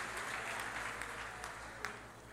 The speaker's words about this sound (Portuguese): Os que podem, tomem o seu assento, dando a Jesus uma linda salva de palmas, porque Ele é bom, porque Ele é maravilhoso.